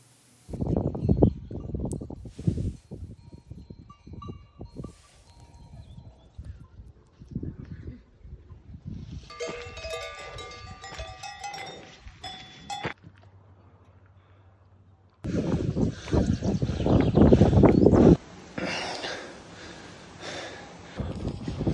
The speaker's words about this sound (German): genießt zwei Minuten Hecheln von mir. Das ist kein Scherz. Okay. Es ist wirklich, es war sehr anstrengend.